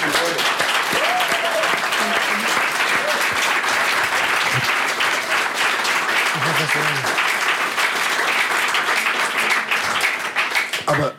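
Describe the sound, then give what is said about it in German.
Sustained applause from a crowd, a dense steady wash of clapping lasting the whole stretch, with faint voices and cheers mixed in before it tapers at the end. “Da gibt es Applaus.”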